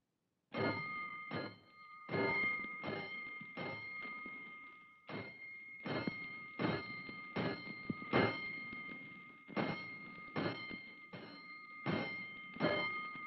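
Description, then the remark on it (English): A fire station alarm bell clangs loudly, struck many times in quick succession with short pauses between groups, sounding five bells for a five-alarm fire, each stroke ringing on under the next. No voices. “Five bells. Stand by all stations.”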